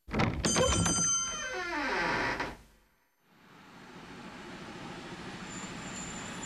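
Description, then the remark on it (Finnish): A train rumbles past at Vammala railway station, with metallic clanking and a descending squealing tone from the wheels, then fades into a brief lull before steady low outdoor rumble and hiss return. “Taidan palata takaisin Vammalan rautatieasemalle.”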